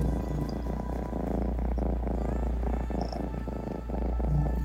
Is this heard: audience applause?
no